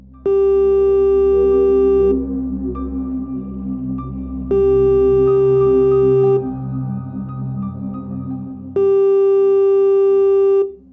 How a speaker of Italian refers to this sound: Il telefono suonò libero. Brutto segno.